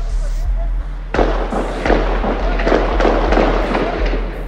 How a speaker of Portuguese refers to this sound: Uma notícia que acaba de chegar: uma pessoa morreu e várias ficaram feridas numa troca de tiros perto de uma sinagoga em Viena.